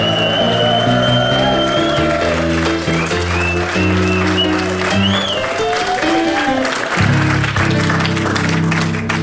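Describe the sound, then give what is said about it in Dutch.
A brief burst of audience applause for Alan Grootaars, Roosje Perts and Rob van Oudenhoven on De Rechtvaardige Rechters at the M museum in Leuven: dense clapping with scattered cheers over a loud, steady musical backdrop with sustained tones, lasting several seconds. “Een kort maar krachtig applaus voor Alan Grootaars, Roosje Perts en Rob van Oudenhoven.”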